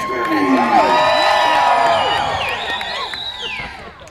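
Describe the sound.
A crowd cheers loudly, with many overlapping whoops and high-pitched shouts rising and falling over a dense roar of voices, sustained throughout and fading slightly toward the end.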